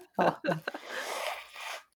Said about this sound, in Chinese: 我现在就过敏，很想擤鼻涕。等我一下。